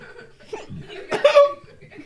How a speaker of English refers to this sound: Why did I get hiccups? Oh, I, I hope I'm not gonna die.